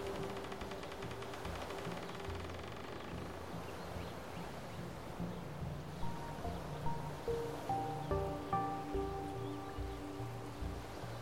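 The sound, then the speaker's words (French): A soft, steady breeze drifts over open lake water in a continuous hushed wash, joined partway through by gentle plucked musical notes repeating in a slow rhythm. “La brise se retire doucement, rendant au lac sa sérénité.”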